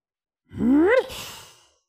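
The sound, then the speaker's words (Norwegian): A person imitates a rhinoceros, making the sound partly through the nose: a single short, rising nasal vocal grunt that ends in a breathy, snorting exhale, fairly loud with no talking. “Ruff, var det en lite, nesten en liten bjeff? Ja. ja. En gang til. Sant. Ja. Litt, litt med nesen.”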